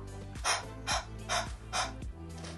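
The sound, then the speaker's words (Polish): A person imitates a hot dog panting with its tongue out, demonstrating the 'breath of fire' breathing exercise: five quick, breathy huffs in a steady rhythm, fairly loud, over a soft sustained tonal hum in the background. “To ćwiczenie jest bardzo proste i żebyś mógł lepiej wyobrazić sobie na czym polega, to wyobraź sobie co robi pies, gdy jest mu gorąco. Wyciąga wtedy język i robi coś takiego.”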